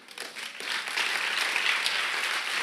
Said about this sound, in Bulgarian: О, ако ръкопляскаш, ръкопляскай, като че даваш слава на Бога, не ми отнемаш просто телевизионното време.